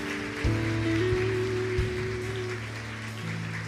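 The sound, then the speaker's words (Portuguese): An audience applauds the people coming forward, a steady, dense crackling wash of clapping that stays even for the whole stretch, with sustained low musical tones holding underneath. “Vamos aplaudir, pessoal.”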